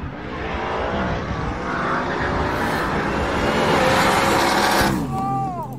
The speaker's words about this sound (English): So those of you that didn't see the, the Cleetus video, and I'm not a Cleetus fan, but it is a Lund tune F-150. So Trackhawk on the left, Street tire, 900 plus horsepower F-150 on the right. Watch him pedal it twice and come around the track car.